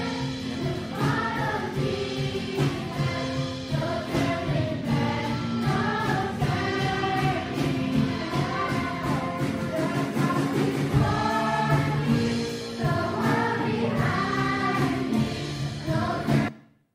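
A group of children sings a simple worship song together, their voices steady and loud, the melody carried in unison and filling the whole stretch before stopping abruptly.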